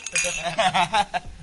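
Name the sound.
glasses clinking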